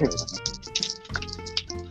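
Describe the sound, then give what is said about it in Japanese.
Light metallic clattering from a kitchen knife, a few sharp taps and clinks in irregular succession, with people talking over it. “あ、これ包丁かな包丁の音。”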